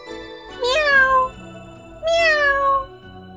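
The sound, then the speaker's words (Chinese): A cat meows twice, two drawn-out, fairly loud calls that swoop up and then slide down in pitch, separated by a short pause, with no talking. “猫却口干舌燥的回答。”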